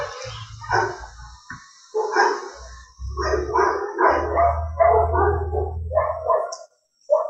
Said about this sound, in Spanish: ¿Quién, me da comida? Dicen los perros,